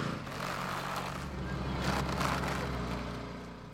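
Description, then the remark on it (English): A Christmas tree is pushed through a netting machine at Circle C Tree Farm in Boone, North Carolina: a steady motorized hum runs throughout, swelling midway with a rough rustling, scraping surge before settling back down. “we put the tree through here and it comes out here with netting around.”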